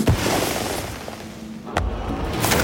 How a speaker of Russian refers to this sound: над Испанской площадью разрывается ракета фейерверка.